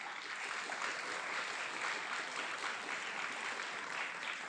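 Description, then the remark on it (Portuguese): An audience applauds to the Lord during a sermon, a dense, even wash of many hands clapping at once that holds the same level throughout, with no voices standing out. “Vocês podem aplaudir ao Senhor por isso, meus irmãos?”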